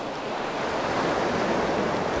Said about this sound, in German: Hier kommt auch nichts mehr. Es ist einfach nur noch Wellen, so ein bisschen.